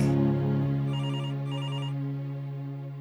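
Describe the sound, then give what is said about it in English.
A telephone rings with a bright, electronic trilling tone in two quick bursts over a steady low hum, moderately loud, with no voices; it has been ringing nonstop with calls from Marnie's mom. “are you sure you don't want me to get that? It's been ringing nonstop.”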